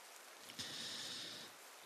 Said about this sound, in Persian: بارون نم نم میبارید صورتم نرمی آب رو حس میکرد